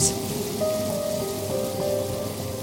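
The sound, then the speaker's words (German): A dense, steady buzzing and humming of a locust swarm fills the air, loud, with a few sustained droning tones rising above the constant rushing wall of wingbeats. “ganz schön am Brummen und Summen hier. Wow, ist das laut!”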